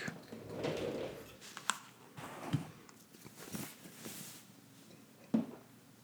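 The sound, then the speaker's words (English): Soft fabric rustling as a person pulls off their shirt on a hot day with the air conditioning turned off, a few seconds of brushing and shuffling cloth with a couple of small bumps, quiet and with no talking. “I just turned off the air conditioning to record this, and it's hot so I'm gonna take off my shirt. Ooh la la. Here's what that sounds like.”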